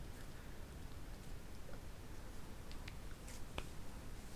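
A few sharp little pops of finger knuckles cracking, scattered irregularly near the end, over a steady low hiss with no talking.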